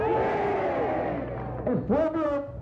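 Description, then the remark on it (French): A large crowd in Havana shouts and roars continuously at a rally while Fidel Castro speaks and asks it to be quiet, many voices blending into a loud, sustained din, with a few raised voices swooping up above the mass near the end. “Écoutez les cris.”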